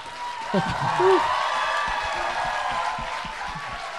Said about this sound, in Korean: 뭐 자기 얘기하는데 박수 치고 있어.